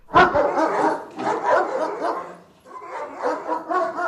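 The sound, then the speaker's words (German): A dog barks repeatedly in loud bursts, with short yips and a whimpering edge between barks, in three clustered bouts and no one speaking. “Und da bei Bertha Knurr ja auch ein Hund lebt, wollen wir jetzt von euch wissen.”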